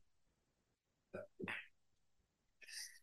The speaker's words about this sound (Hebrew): לבריאות. תודה רבה.